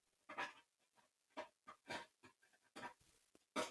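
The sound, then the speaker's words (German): A cat scratching at a wooden kitchen table: a quiet, irregular series of about seven short, rasping scrapes, heard alone with no talking. “Äh, das ist nämlich äh, unsere Katze, die sich an unserem Küchentisch äh, gütlich tut.”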